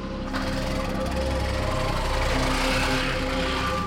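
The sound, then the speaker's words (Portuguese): A motorcycle engine runs steadily and loudly, its rapid mechanical chugging continuous throughout with a harsh, buzzing rattle and no voices. “desculpa aí, eu, eu vou ter que ir, Eu tô muito atrasado, eu vou tentar escutar a moto agora.”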